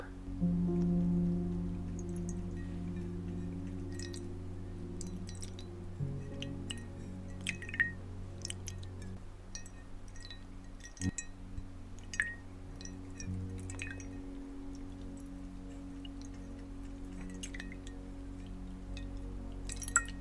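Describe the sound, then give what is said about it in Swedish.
Water drips and small splashes land irregularly over a steady low background hum as a face is rinsed with water, neither too hot nor too cold, to wash off a face mask. Fairly quiet, with no one talking. “Så då sköljer vi bort här med lite vatten.”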